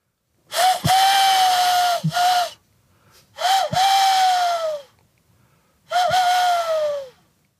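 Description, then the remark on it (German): Three breathy, hollow hoots, each lasting over a second, blown loud into cupped hands to imitate a tawny owl. The first hoot breaks briefly midway, and short pauses separate the hoots. “Und die machen, sag ich mal, den typischen Eulensound, den man so kennt. Und den kann man nachmachen, indem man seine Hände faltet.”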